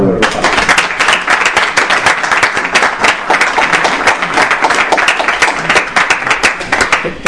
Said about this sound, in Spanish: Un aplauso.